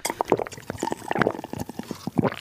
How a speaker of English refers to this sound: Just drinking our Chappy's Deli brand bottled water.